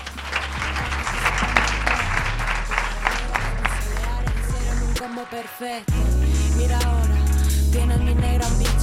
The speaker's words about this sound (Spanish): Un fuerte aplauso para ella.